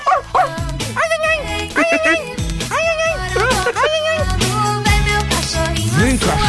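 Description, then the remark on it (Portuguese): A small dog barks and yips repeatedly in quick, high-pitched bursts, mixed with whimpering sounds while a person talks over and between the barks. “Vem, vem, vem. Vem, meu cachorrinho.”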